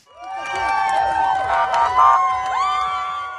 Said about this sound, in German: Es sind Momente der Freude, als in der Nacht der Konvoi mit den Geiseln die Straßen in Israel passiert Begeistert jubeln die Menschen am Straßenrand, israelische Fahnen schwingend, den Fahrzeugen zu.